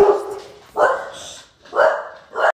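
A dog named Friedrich barks four times in quick succession, loud, each bark a short harmonic burst with brief pauses between them.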